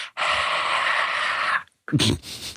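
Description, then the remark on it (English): A single voice imitates a large crowd cheering with a long, breathy, hissing roar that holds steady for about a second and a half, then a brief gap and a shorter burst of hoarse, throaty noise. “that was the sound of cheering.”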